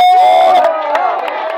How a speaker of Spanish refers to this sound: Dele fuerte ese aplauso al Señor en esta preciosa hora. Fuerte ese aplauso porque es para el Señor. Fuerte ese aplauso porque es para el Señor, hermano amado.